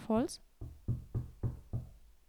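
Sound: knocking on wood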